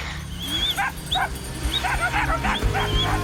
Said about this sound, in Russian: Главный помощник пастуха – собака – в каждом чуме их минимум шесть, а может быть и больше, если стадо крупное. К оленям подпускают только одну породу – оленегонного шпица, которого еще называют ненецкой лайкой.